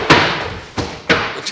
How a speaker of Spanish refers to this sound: te golpeaste. No, no. Te caíste sentado. Parado hubiera sido peor. Pero papá, convengamos que caerme de la silla es lo menos que me puede pasar después de escuchar semejante noticia.